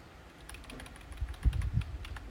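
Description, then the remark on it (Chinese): Quick, steady typing on a computer keyboard, a run of crisp clicking keystrokes with a few heavier, thumping presses midway. No one speaks. “我很喜欢听，就是键盘打字的声音，可能跟以前念基础有关。”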